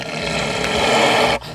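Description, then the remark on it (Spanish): A loud, rough recorded animal roar, supposedly a wolf, rumbles steadily for over a second, then cuts off abruptly into quieter background noise. No one speaks. “Es un lobo, se supone.”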